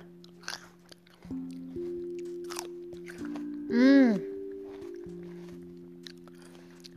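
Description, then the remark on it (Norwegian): Wet crunching as someone bites and chews a juicy, crisp, seedless Autumn Crisp grape, a few sharp crunches spread out over a steady humming drone, with a brief appreciative murmur from the eater. “Saftig, knasende sprø. Deilig drue uten stein.”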